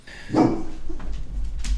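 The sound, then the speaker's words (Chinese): A dog, excited at seeing cars pass by outside, lets out one loud, sharp bark, followed by a couple of fainter, brief yips over a low steady background rumble. “啊，sorry，我的狗又看到外面有一些车在经过，它有点激动。”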